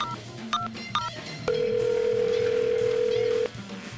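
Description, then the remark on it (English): Telephone dialing as the president of Columbia calls up a musician: two short keypad beeps, then a steady, mid-pitched electronic tone holding for about two seconds before cutting off, over a low background murmur. “Intrigued and filled with the prospect of money and lots of it, the president of Columbia called up …”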